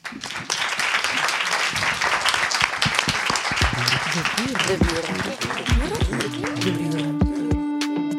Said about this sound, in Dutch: Mag ik nog een keer een groot applaus